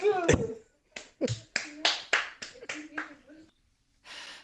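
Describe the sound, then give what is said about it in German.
A quick series of sharp slaps, about eight in an uneven rhythm, a hand smacking a thigh, followed by a brief soft rustle. “Nein, du hast einen Schnitzel geknopft, geklopft so. auf deinem Oberschenkel.”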